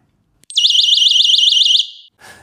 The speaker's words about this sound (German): Alternativ dazu, es gibt ja auch Menschen, die können nicht so laut sein, gibt es sogenannte Schrillalarme oder Taschenalarme. Ich habe hier einen dabei. Ich mache das jetzt mal.